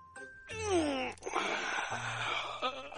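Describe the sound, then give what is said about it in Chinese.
A voice imitates a bear stretching and yawning as it climbs out of a book: a loud, drawn-out groaning moan that sweeps downward in pitch, then trails into a second rough, breathy moan, lasting about three seconds. “嗖的一声，从书里钻出来了一头熊，伸着懒腰，打着哈欠。”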